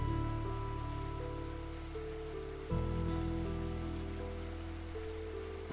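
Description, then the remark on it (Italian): Steady rain hisses continuously beneath sustained, droning musical chords that shift once midway; no one speaks, and the rain stays an even wash throughout. “Stasera voglio solo divertirmi, sotto la pioggia.”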